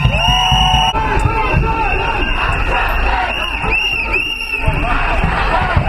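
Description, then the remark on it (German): A loud street demonstration of about 1000 striking employees of the Uniklinik Freiburg marching in support of a strike fills the scene with constant shouting, whistles and overlapping voices, a dense, unbroken roar with sharp shrill peaks cutting through. “Rund 1000 Menschen unterstützen Streik mit lautstarker Demonstration”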